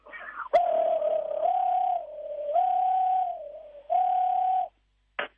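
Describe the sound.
Someone imitates a European nightjar's churring: a long, steady, low purring trill held in three stretches with short pauses, then a brief sharp burst at the end.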